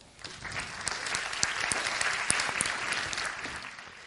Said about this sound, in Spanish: ¿Te vienes para acá? Un aplauso para él, por favor.